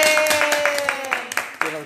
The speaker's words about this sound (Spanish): pues un aplauso aquí para la invitada